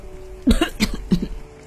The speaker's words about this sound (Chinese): 火龙爸爸咳嗽着回答。